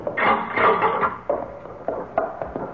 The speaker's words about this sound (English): Here we are. I'll open the door.